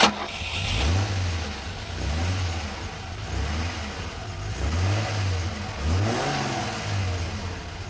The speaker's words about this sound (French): Bruit de moteur.